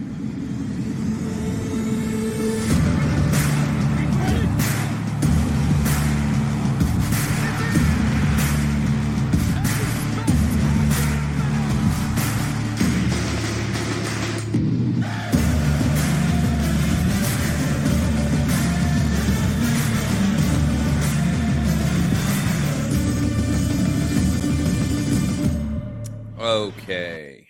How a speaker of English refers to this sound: Hope you enjoyed that music.